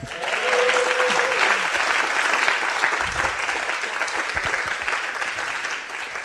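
A crowd applauds steadily for several seconds, a dense, even wash of clapping that stays loud throughout, with a brief tonal whistle near the start.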